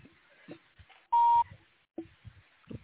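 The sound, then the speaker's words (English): A single loud electronic beep from a car, a steady tone lasting about a third of a second, cuts in sharply over quiet, scattered low background sounds. “We're having a beeping sound.”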